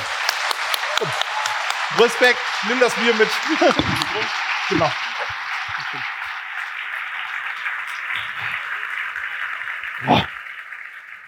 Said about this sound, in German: Ein Applaus